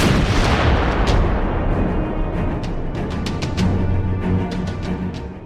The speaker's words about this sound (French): Je fais mettre deux mortiers en batterie à vue directe sur le bois. Les balles sifflent, mais la mise en batterie se fait rapidement et par une veine sans pareille, le premier obus tombe en lisière.